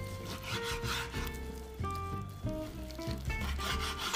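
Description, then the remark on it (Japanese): A knife cuts a boneless, skinless block of chicken thigh into large pieces for karaage on a wooden cutting board, making repeated rough, rasping strokes over steady tonal background music. No one speaks. “まあねなんかブロックというかもう普通に日本で買うもも肉で切ってないやつを今好きな大きさに切ってるとこですねまあ、唐揚げはやっぱりこう小ぶりより大ぶりの方が俺の好みなので結構大きめに切ってきます”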